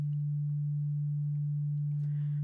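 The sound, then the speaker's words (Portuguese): A steady, pure low-mid sine tone hums continuously at one pitch for the whole span, smooth and unwavering with nothing else around it, at a moderate level. “Vamos ver agora o que, que a gente vai chamar de médio grave, né? acima de 150, 180 Hz.”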